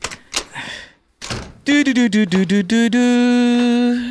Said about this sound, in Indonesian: Kebiasaan banget nih nutup pintu kamar